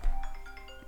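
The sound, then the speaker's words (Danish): A quiet mobile phone notification ping sounds, a brief electronic tone with a few soft chiming pulses over faint background noise, with no one talking. “Det var din mobil.”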